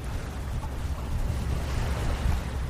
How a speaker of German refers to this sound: Das Rauschen und das Plätschern des Indischen Ozeans.